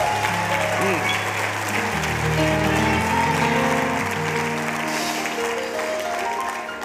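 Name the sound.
audience applauding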